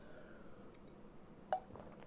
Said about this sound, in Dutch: Sorry jongens, ik ga even een slokje nemen, want dit. Dit werkt even niet hoor. Moment.